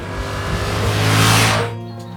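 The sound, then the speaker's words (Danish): The engine of an MT-07 Tracer motorcycle revs up, swelling to a loud, roaring peak about midway before dropping back to a steady low idle. No voices are heard. “Nu hvor den er gjort klar, alt er indstillet, alt er spændt efter, kæden er smurt, der er luft i dækkene, fylde noget benzin på og prøve at komme ud og mærke den her helt fantastiske motor en gang til.”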